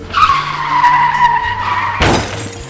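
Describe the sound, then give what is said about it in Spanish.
Tires screech in a long, loud skid for about two seconds, ending in a sudden crash with a burst of breaking glass and debris just outside a radio station's central booth; no voices. “Eso que viene llegando tan rápido que hasta se estrelló aquí afuera de la cabina central de Abrilex Radios”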